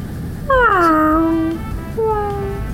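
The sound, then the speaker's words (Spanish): An old female cat meows twice at night, a long drawn-out falling cry followed by a shorter one, insistent and clear over a low background hum. “¿Quieres salir al patio? Ay, no. No, gata, es muy noche, te puedes enfermar.”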